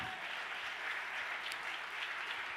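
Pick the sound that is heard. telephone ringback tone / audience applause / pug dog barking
audience applause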